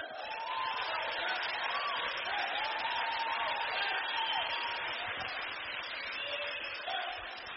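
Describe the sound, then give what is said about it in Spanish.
An audience breaks into steady, sustained applause for Puerto Rico, a dense crackling wash of clapping mixed with scattered cheers and shouts, holding at an even level for several seconds before easing slightly at the end. “Aplauso para Puerto Rico.”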